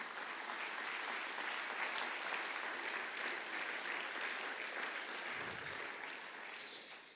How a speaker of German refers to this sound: Und der Boas heute am Licht, gebt ihm mal einen riesen Applaus hier. Ich finde es mega.